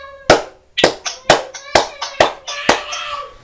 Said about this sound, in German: Also 209 Leute hören uns. Ja, okay, klatschen erstmal eine Runde.